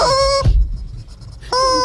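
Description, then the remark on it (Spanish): A rooster crows in two loud, bright bursts, one at the start and one at the end, separated by a brief low thump and a quiet gap. No one speaks. “Ha llegado el gallo sonero.”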